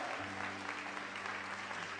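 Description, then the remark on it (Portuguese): A church audience breaks into sustained, dense applause for the Lord, a steady wash of many hands clapping at an even loudness, with a low sustained organ-like hum underneath. “Então, pode aplaudir o Senhor.”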